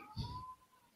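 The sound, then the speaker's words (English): A short, eerie cat meow rises out of a quiet background, a thin drawn-out tone around a low thump, heard once and fairly faint. “and I don't know if you guys are hearing that creepy cat sound as soon as I start yeah.”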